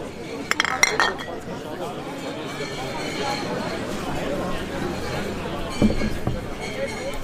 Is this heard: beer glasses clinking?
yes